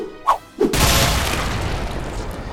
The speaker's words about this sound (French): Donc tu lances ton batarang électrique qui euh, atteint sa cible euh, parfaitement, tellement parfaitement que d'un coup ça a créé une explosion.